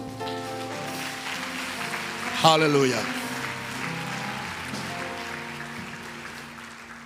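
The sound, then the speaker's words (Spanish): An audience claps steadily for several seconds in praise to the Lord, a dense wash of applause running under a voice that calls out a short exclamation over sustained tones. “Dale una gloria al Señor, un aplauso.”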